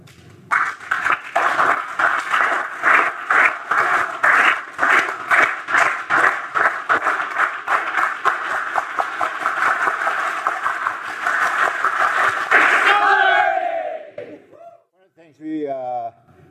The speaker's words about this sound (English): And I want to do this welcome him with the solidarity clap.